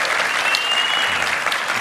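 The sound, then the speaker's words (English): A live studio audience on Answers News applauds steadily, a dense, even wash of many hands clapping at a constant loud level, with no voices standing out. “If you guys would clap and make yourselves known.”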